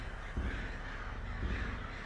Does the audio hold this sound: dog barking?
no